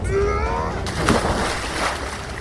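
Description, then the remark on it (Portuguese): A heavy splash as a body falls into a black lake after a brief descending tone, followed by a continuous churning wash of water that stays fairly loud for the rest of the moment. “Então, a coisa o soltou e ele caiu, batendo o corpo em um penhasco de neve, tá. rolando e caindo em um lago negro.”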